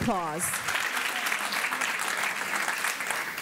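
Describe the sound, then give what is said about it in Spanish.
A crowd breaks into strong, sustained applause, a dense steady clatter of many hands clapping throughout, with a brief voice heard at the very start. “Yet ah, ese fuerte aplauso.”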